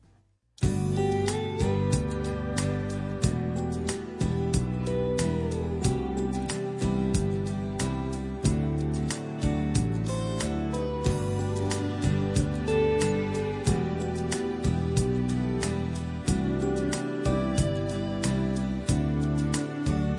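A Korean pop ballad plays continuously at a full, steady volume, with a sung melody over a rich band arrangement and no talking over it.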